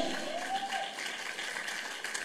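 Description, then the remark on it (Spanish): Steady applause from an audience at a Christian church service, clapping for God, a dense wash of many hands clapping at an even, moderate level for a couple of seconds with no voices standing out. “¡Dale un aplauso a Dios.”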